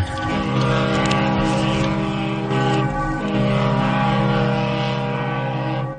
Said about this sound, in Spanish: Veo toda clase de barcos llenos de gente que ha decidido huir por mar. Sí, los primeros barcos salen ya del muelle. Oigo ahora sus sirenas. Escuchen.